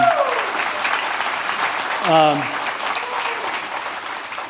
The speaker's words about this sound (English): I'm going to ask you to applaud again, but applaud for Jesus. Okay, it's not us, it's Him.